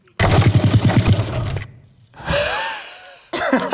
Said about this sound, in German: Wir hören es doch einmal wie kurz. meine Massagepistole. Es ist, ein, es ist ein kurzes.